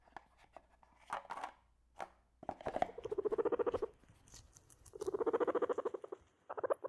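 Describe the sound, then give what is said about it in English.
A live guinea pig in a box, with microgreens glued to its fur, squeaks in two long, rapid pulsing bursts, each a fast stutter of mid-pitched chirps, with light scurrying patter and scattered clicks between them. Nobody speaks. “It's a guinea pig with little herbs glued to its fur?”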